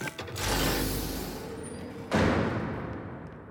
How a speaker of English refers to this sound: We have passed through a door into the adjacent room.